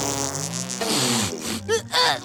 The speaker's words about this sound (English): bro, did you smell? Uh, ew! My! Uh, a smelly fart! Uh. Oh! It's so stinky!